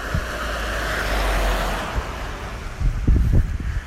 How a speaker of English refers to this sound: Just seen another car. Never mind.